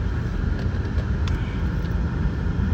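car interior road noise

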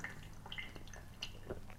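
drinking

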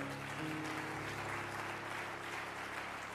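audience clapping

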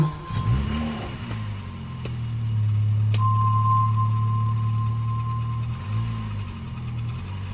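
car engine running

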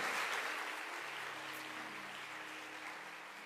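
applause

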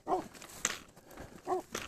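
large dog barking

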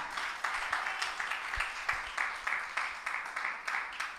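audience applauding

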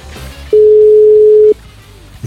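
phone call ringing

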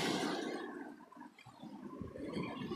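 ocean waves

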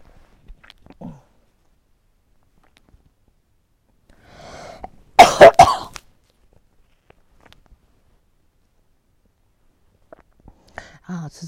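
coughing fit

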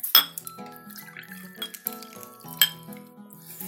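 glasses clinking

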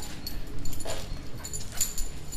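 dog whimpering and yipping

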